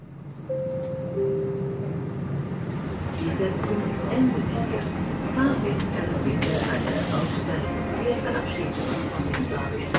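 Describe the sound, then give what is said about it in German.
Steady low rumble of a train ride from Passau to Deggendorf, heard from inside the carriage, with brief tonal whines early on, a short airy hiss partway through, and faint indistinct voices in the background. “Mit dem Zug brauche ich eine Dreiviertelstunde von Passau nach Deggendorf.”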